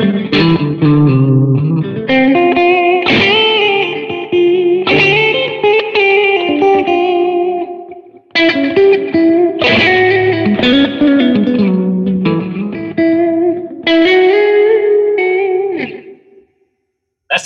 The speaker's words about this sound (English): sounds super close. Like if you didn't tell me you were playing a Les Paul, I'd be like, oh, it's a single coil. I mean, like it's you know P90 is single coil, but like yeah, that, that's so different. Like that's really awesome. It's convincing.